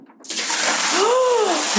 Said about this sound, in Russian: А тут тебе надо стать этими мокрыми, холодными ногами в эту ванну и окатить их ледяной водой.